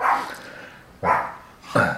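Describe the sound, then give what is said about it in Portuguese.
A dog barks three times in a loose, uneven rhythm, each bark sharp, with short quiet pauses between them and no one speaking. “Olha, esse é o nosso cachorro aqui do, do nosso podcast, né? Ela o latir.”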